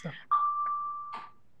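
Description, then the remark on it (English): A school bell rings at the end of the school day with one clear, steady electronic tone that holds for about a second at moderate loudness. Brief bits of a voice come just before and during it. “I'm sorry, the bell is ringing. School just ended for the day.”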